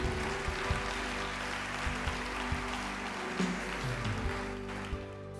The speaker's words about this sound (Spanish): En el nombre de Jesús, la iglesia tiene un fuerte aplauso para el Señor. Amén.